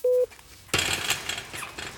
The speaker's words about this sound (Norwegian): Jeg blir fulgt inn i Kongsvinger fengsel av en uniformert betjent med et stort nøkkelknippe klirrende på hofta.